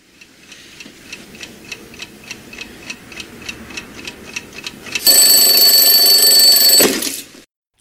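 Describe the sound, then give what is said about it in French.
A clock ticks steadily for about five seconds, then an alarm clock bursts into a loud, continuous electronic ring that lasts roughly two seconds before stopping abruptly. “Il est 8h45, le réveil sonne.”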